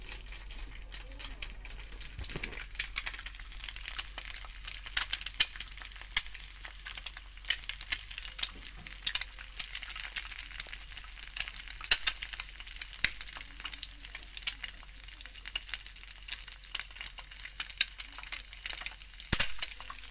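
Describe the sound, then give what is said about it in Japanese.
Fried eggs sizzle steadily in a pan, a continuous hiss of fine crackles with occasional sharper pops throughout, at a moderate, even level. “目玉焼きの音最初は1個だけ食べるつもりが録音するのを忘れてもう1回焼いてくれたと”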